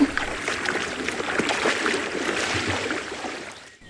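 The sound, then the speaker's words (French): Turbulent water splashes and churns for several seconds as a boat capsizes in a river, a dense, rushing wash with scattered sharper splashes, fairly loud, before quickly dying away at the end. “Mais, mais que se passe-t-il Oh là là Le pauvre ogre, un immense hippopotame et cinq crocodiles renverse le bateau, l'attire au fond de la rivière.”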